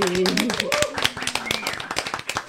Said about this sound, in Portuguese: E para dar aqui o parecer técnico, então uma salva de palmas